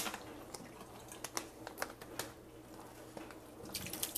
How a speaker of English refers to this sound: Okay, so kitchen itself. Pour out these water bottles. Put them in the recycling bin.